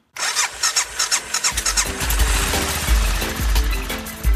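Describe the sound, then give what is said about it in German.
A motorcycle engine cranks with a quick series of rhythmic starter pulses, then catches and settles into a loud, rumbling idle with a few throttle blips. “Und als ich dann das Land verlassen wollte, ähm, ist das der Grenzerin leider aufgefallen, dass mein Motorrad äh, illegal im Land ist und hat es kurzerhand beschlagnahmt.”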